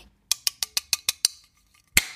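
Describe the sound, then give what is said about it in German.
A full-lid can of Behemoth Lid Ripper Hazy IPA being ripped open, the whole lid pulled off: seven quick, evenly spaced metallic clicks, a short pause, then one louder sharp crack with a brief fizzing tail. “Hier kommt das Geräusch vom Behemoth, Behemoth Lid Ripper Hazy IPA.”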